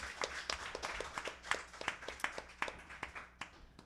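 A small group applauds a team member who handles the scripting, with sharp individual claps standing out in a steady, uneven patter that runs throughout at moderate volume, no voices heard.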